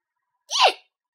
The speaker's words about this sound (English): Homer has the hiccups.